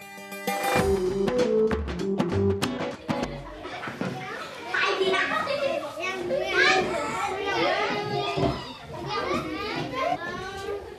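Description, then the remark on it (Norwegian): Children play and chatter, their lively overlapping voices rising and falling continuously, with a burst of bright tonal music or toy sounds at the start. “Når barn leker, kan de veksle mellom ulike dialekter og språk.”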